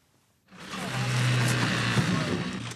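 During a Norwegian emergency exercise, a fire service chainsaw roars to life after a brief silence and keeps running loud, its steady motor drone mixed with harsh, gritty rasping as it cuts through the metal of two cars that collided head-on, to free passengers.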